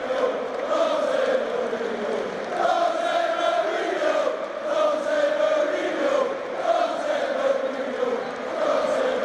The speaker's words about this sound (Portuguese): mas a gente vê aí também a torcida cantando muito é, Manchester, Manchester, né, em homenagem à cidade, e cantando também muito para o técnico José Mourinho.